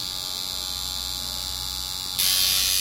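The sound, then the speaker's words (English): A tattoo machine buzzes steadily as a tattoo of a spray can with the word Ubik is done on an arm, a continuous electric whine that suddenly grows louder and harsher near the end. No one speaks. “Yeah, this is a good place to get this tattoo.”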